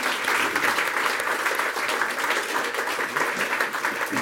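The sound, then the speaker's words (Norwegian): An audience at a stage show applauds steadily for about four seconds as the next performer is welcomed on stage, a dense, even wash of many hands clapping at full strength with no pause and no voices standing out. “Ja, applaus for …”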